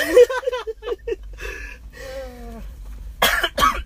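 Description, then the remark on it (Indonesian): A couple of harsh, throaty coughs burst out near the end, after a stretch of voiced murmuring and throat sounds, inside a car. “Aduh batuk bor ini kita lagi berada di dalam oh, mobil”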